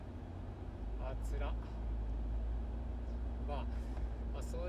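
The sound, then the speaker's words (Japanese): A steady, deep rumble of car interior noise while driving through countryside in Niigata, Japan, following a light truck on an almost empty road, loud and constant, with a voice speaking intermittently over the engine and road drone. “新潟ドライブ中に配信”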